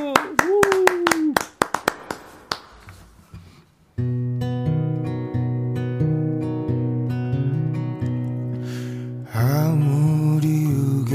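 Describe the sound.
A burst of sharp, closely spaced hand claps welcoming a live acoustic guitar performance, briefly overlapped by a speaking voice, tapers off; after a short pause, strummed acoustic guitar and a singing voice begin.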